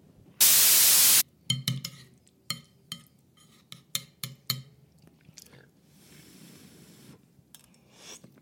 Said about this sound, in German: So, jetzt muss ich hier mein Essen aus der Mikrowelle holen